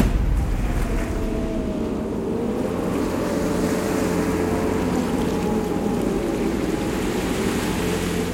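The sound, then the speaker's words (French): The Vendée Globe racing sailboat Generali pushes steadily through rough open water in the southern Indian Ocean in very strong wind, with a continuous rush of waves and spray over a deep, constant rumble of wind, loud, with no voices. “Samedi 20 décembre, ce matin, le vent souffle très fort sur le sud de l'océan Indien. Malgré sa volée en débâcle, Generali avance à un rythme soutenu.”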